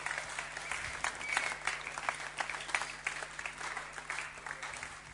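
A steady wash of audience applause for a group of young people, many hands clapping densely and continuously at moderate loudness throughout, with no clear voices on top.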